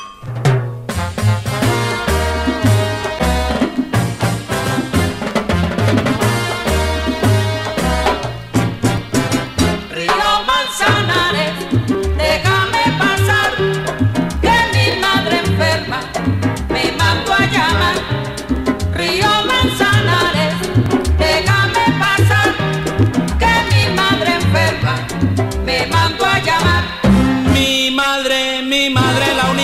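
A Latin son tune plays loud and steady throughout, sung vocals and backing chorus riding over a bouncing bass line and driving hand percussion with cowbell accents.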